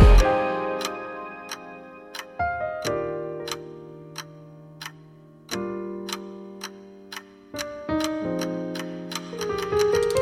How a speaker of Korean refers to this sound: 네가 없는 방안의 시계 초침 소리는 유난히 더 커.